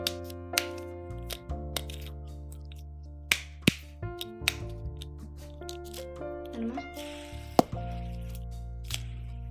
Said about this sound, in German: Auf jeden Fall ähm, habe ich so einen Fidget Spinner, wo man auch so runterdrücken kann.